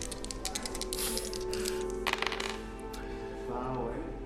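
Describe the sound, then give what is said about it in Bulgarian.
Several ten-sided (D10) dice rattle and clatter across a hard surface, rolled for damage in a game, a rapid burst of sharp plastic clicks that tumbles on for a few seconds, with a faint murmur of voices underneath. “О, за първ път използваме D10 зарове.”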